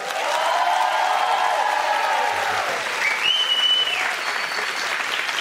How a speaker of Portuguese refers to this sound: pode aplaudir.